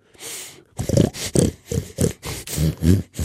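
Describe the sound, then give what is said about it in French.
A pig grunts and snorts: a breathy snuffle, then a quick run of about seven rough, rhythmic grunts, fairly loud with no talking. “Puis un cochon.”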